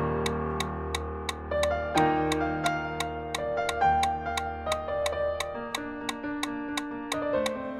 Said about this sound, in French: chaque battement du métronome.